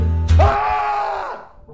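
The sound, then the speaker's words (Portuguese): A man entering a room lets out a single sustained, loud scream of terror lasting about a second after a brief low thud, then fading away. “Entrando na sala, Camilo não pode sufocar um grito de terror.”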